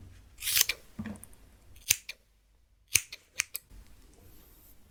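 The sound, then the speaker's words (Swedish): Scissors snip through hair while cutting bangs: a brushing cut, then several crisp, sharp snips spaced irregularly with short quiet gaps between them, and no voices. “klippa lugg nu.”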